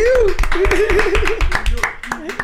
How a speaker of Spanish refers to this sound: Quiero que le den un fuerte aplauso a tío.